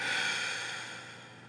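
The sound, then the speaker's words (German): A single deep, airy relaxation breath drawn down into the belly, then a soft rushing exhale that slowly fades, with no talking. “Es ist so schön, wie wir hier gerade zusammen atmen.”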